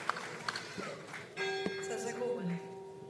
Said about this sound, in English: Well, I think that uh, the bells ringing is, uh, in fact, rather symbolic.